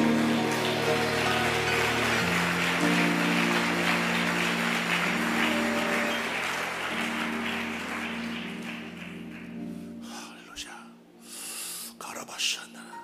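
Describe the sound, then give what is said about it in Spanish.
A church audience applauds loudly to give glory to God during a healing service, a dense, steady wash of clapping over sustained low musical tones, thinning out and fading in the last few seconds. “Dele gloria a Dios y un aplauso fuerte.”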